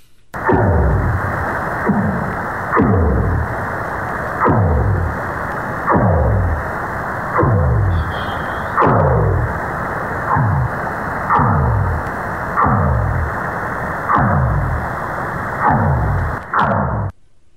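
A whale sings a steady run of about ten low, downward-sweeping moans, each repeating every couple of seconds over a constant hissy, muffled background, with no voices.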